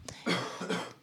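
A person coughs twice in quick succession, fairly loud, with a short rough, voiced quality to each burst and no talking around it.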